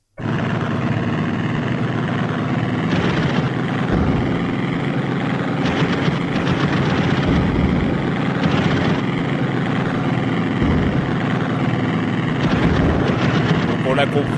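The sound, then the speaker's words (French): Gameplay audio from Wings, a 1990 arcade-style flight simulator video game by Cinemaware: a steady, loud propeller-engine drone fills the whole stretch, broken every few seconds by short crackling bursts, with no talking. “là euh, c'est du son gameplay. C'est du gameplay.”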